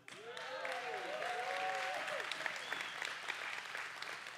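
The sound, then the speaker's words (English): An audience breaks into sustained, steady applause after the speaker announces his wedding anniversary, a dense wash of clapping mixed with scattered cheers and whoops that holds loud for several seconds. “I know y'all clapping for me, not for her.”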